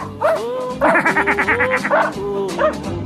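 A dog named Tim barks in a short excited burst: a couple of yips, then a quick rapid run of barks, followed by a few more scattered yelps.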